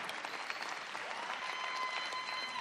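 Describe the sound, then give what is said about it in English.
A crowd claps steadily in dense, continuous applause that stays loud and even from start to finish, with no voices standing out above it, as a man is invited to come up. “All right, keep clapping.”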